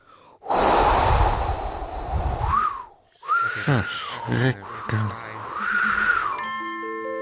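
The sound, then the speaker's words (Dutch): A voice mimics blowing wind: two long, breathy whooshing gusts with a whistling tone that rises and falls, separated by a brief pause, with some voiced sounds mixed in. “Tot op een dag ging de wind waaien.”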